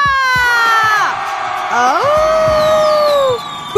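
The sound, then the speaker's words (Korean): An audience at a KBS radio dance party segment cheers loudly when asked to shout again, with many high-pitched overlapping screams and shouts that rise and hold for about three seconds before cutting off. “함성 소리 왜 이래 지만 다시 소리 질러!”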